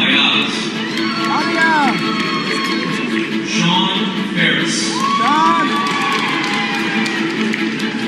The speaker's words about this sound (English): This guy's going viral for applauding and then repeating every single name of every graduate at his daughter's graduation.